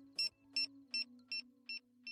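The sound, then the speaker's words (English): Six quick checkout scanner beeps repeat at an even, rapid pace, each a short high-pitched electronic tone, over a steady low hum with no talking. “And it starts with the beep”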